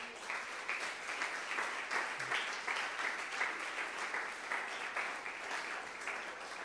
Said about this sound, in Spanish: Levante las manos y aplaude a Dios.